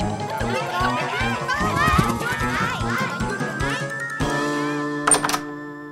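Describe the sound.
Quick, heavy footsteps thud in a steady running rhythm across a floor for several seconds as children chase each other through a house, with excited voices and melodic tones over them, then the running stops.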